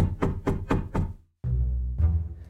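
Five quick, evenly spaced, crisp knocks at a door, heard during a reading of the children's book Bears Don't Eat Egg Sandwiches, then a brief silence before a low, sustained musical tone swells in.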